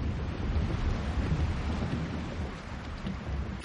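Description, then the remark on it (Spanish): Thunder rumbles low and steady through a heavy downpour during a lightning storm at a mansion, the storm's roar filling the whole stretch without any clear break or sharp crack, no voices present. “Los relámpagos iluminan la estancia.”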